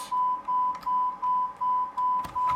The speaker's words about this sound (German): Ich muss mal kurz den Ton ausmachen. Dieses Gepiepe geht mir so dermaßen auf die Nerven.